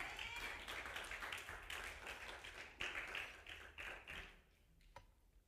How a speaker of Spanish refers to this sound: Dale un aplauso al Señor Jesús